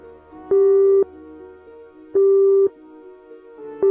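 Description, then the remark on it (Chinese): A telephone line tone while a mobile phone call to a police emergency centre connects: three steady, mid-pitched electronic beeps, each about half a second long, repeating at even intervals over a low, quiet background hum. “好的，正在为您拨打电话。”电话接通之前，他转动头部”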